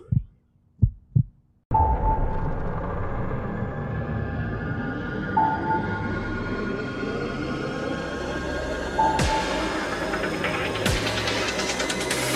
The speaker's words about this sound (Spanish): La Salle Radio. Tu latido.